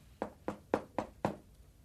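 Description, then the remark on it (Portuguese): Five evenly spaced, firm knocks on a wooden door, each a short dull thud with a brief ring, then quiet, as Little Red Riding Hood knocks on the door of her grandmother's house in the story. No one speaks. “Chegando à casa da vovó, Chapeuzinho bateu na porta.”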